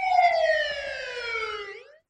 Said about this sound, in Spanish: los sonidos de la guerra son sirenas incesantes en una ciudad despoblada.